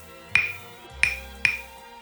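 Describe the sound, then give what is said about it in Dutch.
Three sharp wooden clicks from a pair of claves, wood striking wood, one stick held over a cupped left hand and struck with the other, each with a short bright ringing tone, the first alone and the last two in quicker succession. “En vandaag gaat het over de klavers.”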